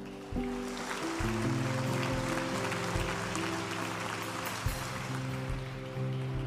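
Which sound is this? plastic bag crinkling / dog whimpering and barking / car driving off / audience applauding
audience applauding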